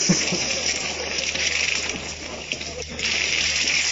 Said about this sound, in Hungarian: Itt most, ha jól hallom, kiborult a legós vödör